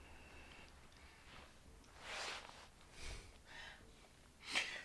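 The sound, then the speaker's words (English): A long, airy breath drawn in, followed by several bursts of breathy air and a sharp, forceful snort-like exhale through the nose at the end, fairly quiet, with no talking. “I do a big breathe in and I just push it out of my nose. So it makes a weird noise.”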